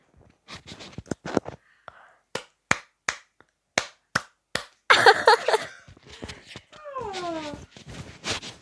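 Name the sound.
hand clapping demonstration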